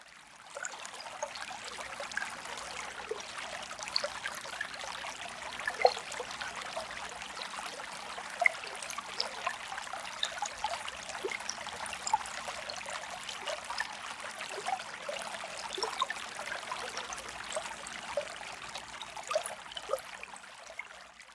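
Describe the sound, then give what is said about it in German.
Water from a newly sprung spring in the sand bubbles and trickles steadily, a continuous gurgle with small splashy pops scattered throughout, no voices present. “Sie beugen sich über das Wasser und sagen Samsam, Samsam im Sinne von sprudelndes Wasser, sprudelndes Wasser.”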